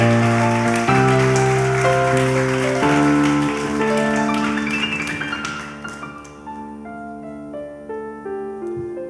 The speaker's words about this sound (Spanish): Vamos a dar un aplauso fuerte a Dios si lo crees.